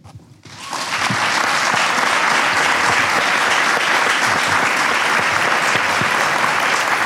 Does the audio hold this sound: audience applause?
yes